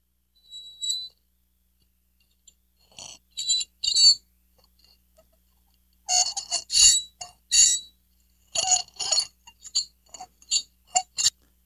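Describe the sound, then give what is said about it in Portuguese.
A fork clinks and scrapes against a ceramic saucer held in the hand: a few sharp, ringing taps at first, then dense bursts of bright, high-pitched clattering and scraping, with no voices. “Eu estou com um prato na mão pires e um garfo.”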